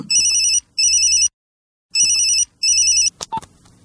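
A telephone rings in two double bursts, each a bright, steady electronic trill with a low buzz beneath, separated by a short silence, followed by a couple of faint clicks as if the receiver is lifted.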